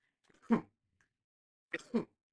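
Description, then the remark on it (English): A person sneezes, a sharp burst followed by a second, two-part sneeze with an inhaled buildup, loud against an otherwise quiet background. “I'm gonna sneeze.”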